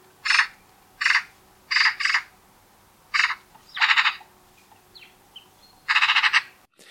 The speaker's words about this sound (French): Il y a la pie bavarde, qui est un des oiseaux les plus martyrisés d'Europe, un des plus malins aussi.